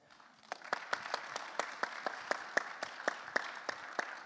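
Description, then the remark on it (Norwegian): A group of people applauding, a dense, steady patter of clapping with a few sharper individual claps standing out at a fairly regular rhythm. It swells slightly after the start and holds without any talking. “Nå må jeg gjerne gi en klapp.”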